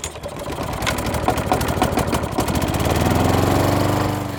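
A lawn mower engine runs steadily, its loud buzzing drone pulsing rapidly with a rough, rattling rhythm that settles into a smoother, slightly lower hum toward the end. No one speaks.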